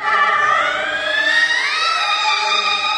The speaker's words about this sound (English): If this is not what you were expecting Inuit throat singing to look or sound like, stick with us here. Her music is improvised.